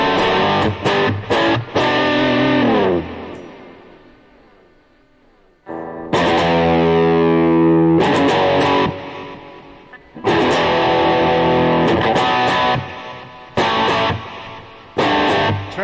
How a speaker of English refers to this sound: guitar to chipmunk sound. That's what it is. That guy's tapping so fast, it, it sounds like a chipmunk.